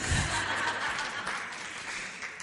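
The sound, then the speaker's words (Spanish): An audience applauds steadily, a dense wash of many hands clapping at once that holds at an even, moderate level throughout, with a hint of light laughter mixed in. “si queréis aplaudir, aplaudid, vamos.”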